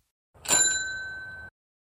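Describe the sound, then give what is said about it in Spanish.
A single bright bicycle bell ding, struck once with a sharp metallic attack and a clear ringing tone that fades over about a second. Fairly loud, with no voices. “O podríamos escuchar frente a nosotros un timbre de bicicleta o percibir su sonido detrás, como si quien estuviera pedaleando nos avisara que nos va a pasar por la izquierda.”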